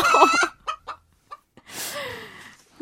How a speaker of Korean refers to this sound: 어, 이거 닭소리. 어. 어